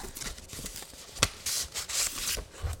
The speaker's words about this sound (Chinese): 哇哇，他好用心哦，他他还特别就是两层。 我们要再拆第二封的第二层。